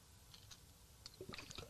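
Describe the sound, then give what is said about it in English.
Someone takes a quiet sip of water: a few soft, wet slurping clicks and a small gulp in quick succession, with no talking. “Let me get some water.”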